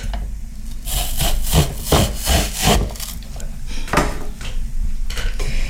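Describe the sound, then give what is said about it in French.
A potato fry cutter, bought at a flea market, pressing potatoes through its blades into fries: a series of loud, gritty scraping and crunching strokes, roughly half a dozen in uneven rhythm, with no voices. “T'as vu ma belle machine à patates”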